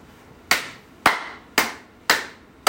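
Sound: hands clapping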